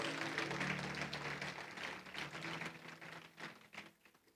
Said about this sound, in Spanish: Dale un fuerte aplauso a la presencia de Dios que está con nosotros.